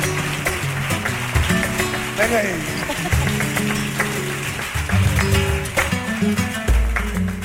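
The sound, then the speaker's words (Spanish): Scattered audience clapping runs throughout, a steady patter of claps mixed under a man's voice and some tonal background sound, moderately loud. “un fuerte aplauso para él, por favor.”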